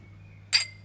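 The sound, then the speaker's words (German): A single bright clink of glasses touching in a toast, sharp with a short ringing tail, over a low steady hum. “Prost.”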